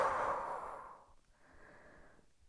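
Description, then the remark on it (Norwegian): A long, breathy exhale after holding the breath in a guided breathing exercise before sleep, loud at first and hissing broadly, fades over about a second, followed by a softer, steadier airy breath sound. No one speaks. “Og pust ut.”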